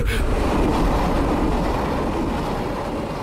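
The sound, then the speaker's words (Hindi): A train roars past on the neighbouring track, diverted there because the other track is under maintenance. It draws nearer and grows louder: a loud, steady rumble of wheels on rails with a brief sharp burst at the start, filling the whole clip without any voices. “train नजदीक आती रही आवाज तेज होती रही”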